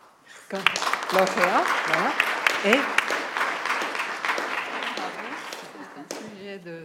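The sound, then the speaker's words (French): A crowd bursts into sustained applause for the winner of a poster prize, many hands clapping densely for several seconds, with scattered voices and a pitched vocal cheer or speech threading through before it tapers off. “Voilà, alors nous applaudissons la.”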